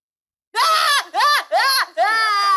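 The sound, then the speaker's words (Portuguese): A young girl cries and screams in a tantrum after her balloon is popped: four loud, high-pitched wails in quick succession, each rising and falling, with the last one drawn out. “Sem choro, calma, calma.”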